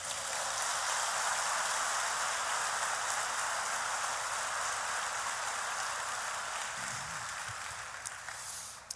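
Steady, dense applause from an audience applauding Jesus fills the whole stretch, a continuous hiss of many clapping hands that stays loud and even before easing slightly at the end, with no voices over it.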